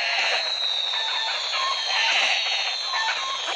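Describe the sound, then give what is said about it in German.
A flock of chickens clucks and chatters continuously, with short overlapping calls over a dense, steady background. Loud, with no talking. “das wurde schon mal durch Hühner gekillt.”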